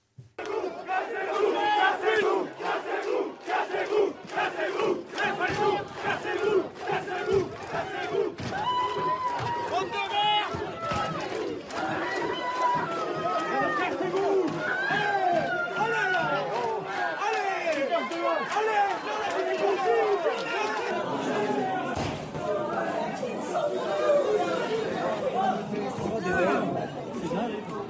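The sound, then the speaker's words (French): A large crowd of protesters shouts and yells continuously, including "cassez-vous", during clashes that disrupted an Éric Zemmour book signing in Brest. Many overlapping voices form a dense, agitated roar with sharp cries and sudden bangs punctuating the noise throughout. “Dédicace d'Éric Zemmour perturbé à Brest par des heurts avec des manifestants, deux interpellations.”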